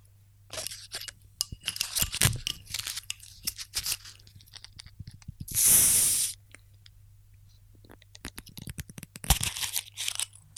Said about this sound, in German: Ich mache ihn auf. Oh, zweites ASMR für heute. Wo ist denn der Bieröffner?